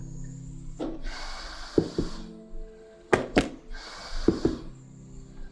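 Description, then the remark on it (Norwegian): Rhythmic airflow from a ventilator breathing mask of the kind a patient is fitted with: two long hissing breaths, each opening and closing with soft mechanical thunks and clicks, over a steady low hum. Fairly quiet, with no voices. “Det å være pasient og bli lagt på en, en sånn her type maske, så vil det jo suse godt rundt ørene dine.”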